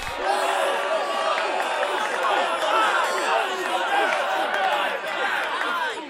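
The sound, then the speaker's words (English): A loud, dense crowd of young frat boys shouting and chattering over one another at a summer camp, rowdy and continuous, with occasional whoops and thumps, like a boisterous party. “I can barely hear myself think over those stupid. Ah! Will you shut up? You overdressed, overcooked frat boys.”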